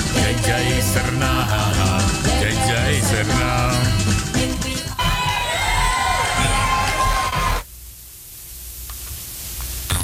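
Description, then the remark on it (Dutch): A crowd applauds and cheers loudly, with shouts and whoops rising over a dense wash of clapping for about seven seconds before it suddenly drops to a quiet hiss. “Applaus, applaus.”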